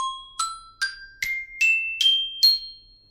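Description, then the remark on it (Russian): Orchestral bells played without the sustain pedal give seven bright struck notes climbing upward in an even, quick rhythm, each ring cut short before the next, clear with no voices. “Все, звук не идет. Это не такое звучание в оркестре у колокольчиков.”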